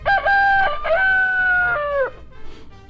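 A rooster lets out one loud, drawn-out crow, rising and then holding before trailing off, with no voices and only faint background noise afterward.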